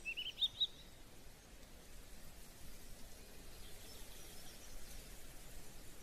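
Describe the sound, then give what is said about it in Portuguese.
A few quick, high bird chirps near the start, then a soft, steady outdoor hiss with faint, scattered bird calls in the background. No one speaks. “Você está escutando os pássaros, a brisa soprando seu rosto”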